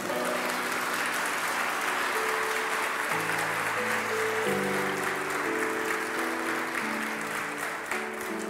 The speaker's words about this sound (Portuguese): Se você crê, dê um aplauso a Ele.